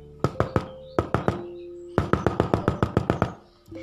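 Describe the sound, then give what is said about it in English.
Crisp knocking on a door, fairly loud: three quick raps, a pause, three more, then a longer, insistent run of about ten knocks. No one speaks. “So he went to the boar's room, knocked on the door”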